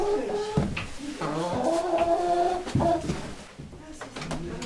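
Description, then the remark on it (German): Two hens cluck and croon in a busy, overlapping stream in a stable, moderately loud, with short bursts and warbling calls. “Das sind jetzt die Kaninchen und die Hühner.”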